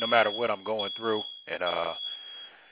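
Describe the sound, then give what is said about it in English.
Shrill, high-pitched smoke alarms sound steadily in the background in a house under a man talking, with no fire, and keep going after he pauses. “you know, the noise in the background, y'all might hear the smoke alarms going off over my house, but uh, it ain't no okay, fire.”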